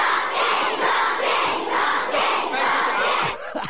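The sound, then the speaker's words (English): A large group of children at Tewantin State School shouting and cheering together, loud, in rhythmic surging bursts that fill the whole recording without a break. “this is the children of Tewantin uh, State School when you were there.”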